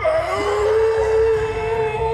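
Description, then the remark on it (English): A sustained, eerie howl from monstrous creatures with skull-like faces and black holes for eyes, raising their faces as they howl, rings out steadily and loudly, holding a drawn-out tone for the whole stretch with layered harmonics and a low rumbling undertone, no voices speaking. “two of the creatures dragged mining implements behind them, and the companions stood in stunned terror as they raised their faces and howled.”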